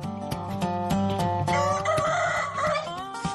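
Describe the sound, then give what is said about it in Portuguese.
A rooster crows loudly, one long, strained call lasting a few seconds with a wavering pitch, accompanied by faint regular clicking in the background. “vai conversar com galo? Cala a boca! Quer gritar?”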